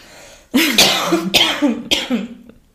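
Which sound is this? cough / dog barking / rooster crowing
cough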